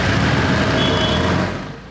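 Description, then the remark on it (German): Dense street traffic in Old Delhi rumbles, with heavy bus and car engines and rickshaws filling the air as they honk their way through. A brief high horn-like tone cuts through before the noise eases off slightly. “Busse, Autos und Rikschas hupen sich den Weg frei.”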